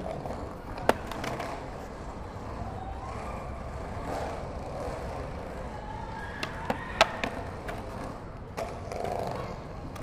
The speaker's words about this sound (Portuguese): Caminhamos mais um pouco e chegamos na principal, e a boa é ficar ali brisando na molecada andando de skatinho na pista que tem na praça.